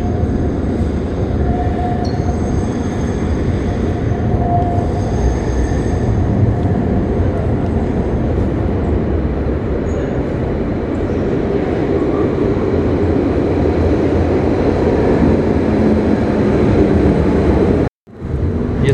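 A number 19 tram rumbles loudly and steadily into the Kraków Główny Tunel underground stop in Kraków, a dense rail roar with faint metallic whine above it, broken by a sudden brief gap near the end.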